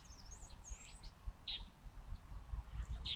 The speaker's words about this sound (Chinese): 你听，这肯定是中头鸦雀的声音。